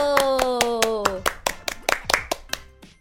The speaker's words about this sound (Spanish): ¡Venga ese aplauso!